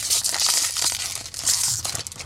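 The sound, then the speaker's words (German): Continuous crinkling and rustling of a plastic bag as someone tugs and tears it open, with sharp bursts of crackle throughout and no voices. “Dann machen wir die nächste Tüte auf.”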